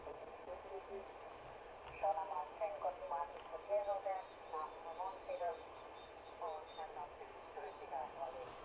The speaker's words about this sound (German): Was man jetzt hört, man hört so ein bisschen Quieken von Nachbarstationen. Das ist heute nicht mehr so ein Problem wie früher, weil einfach das Band nicht mehr so voll ist.